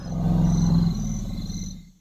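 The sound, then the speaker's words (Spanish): A lion lets out one deep, loud roar, a rough rumbling bellow that holds for nearly two seconds before trailing off. “las canciones elaboradas en las aves, o los ruidos fuertes y contundentes en los leones.”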